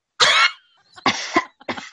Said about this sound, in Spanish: Perdón por la tos. Disculpen ustedes. Disculpen ustedes.